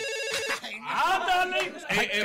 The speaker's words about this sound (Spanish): Ahí entró la llamada, ahí entró ah, la llamada. Ahí entró la llamada.